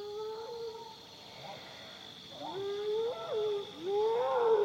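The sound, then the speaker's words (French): Mournful, wavering calls of spotted hyenas in Kruger National Park, South Africa, at daybreak, rise and fall several times, growing louder toward the end, over a steady high drone of insects and singing toads. “Mais bien vite, des appels lugubres retentissent et viennent dominer l'atmosphère.”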